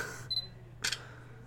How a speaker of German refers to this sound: Stell es mal hin, ich will ein Foto davon machen.